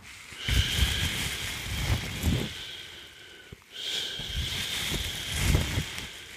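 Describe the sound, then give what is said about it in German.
A sea-waves sound effect: a rushing, hissing noise like waves surging in and pulling back, swelling twice over a few seconds with rumbling low bursts, steady, with no talking. “Das ist das Rauschen des Meeres.”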